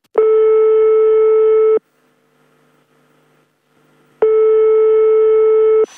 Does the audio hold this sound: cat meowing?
no